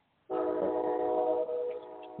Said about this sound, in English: Sorry, man. I'm by the train tracks. I guess you can hear it in the background, huh? Yeah, I can. Sorry about that.